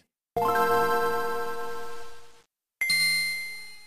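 A Game Boy console startup chime: a bright electronic tone that rings out and fades, followed by a second, higher ding. Clear, with no voices.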